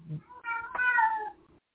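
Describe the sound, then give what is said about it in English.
A single drawn-out cat meow, rising then falling in pitch, fairly loud, heard on its own for about a second. “I, and clearly, clearly I'm getting cat calls for my”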